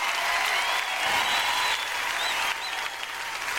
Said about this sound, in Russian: Пока задний ряд и балкон не подключатся к аплодисментам, я дальше вообще продолжать не буду и просто откушу всем головы.